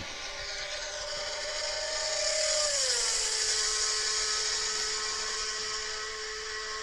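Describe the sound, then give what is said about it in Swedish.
The high-pitched engine of a restored 1970 Ferrari 312B Formula 1 racing car screams steadily, its whine dropping in pitch partway through as it downshifts and the revs fall, then holding at a lower, sustained tone. No voices. “En Ferrari 312B, det där är ju en riktig, det där är en riktig klenod.”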